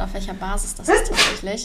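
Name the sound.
sneeze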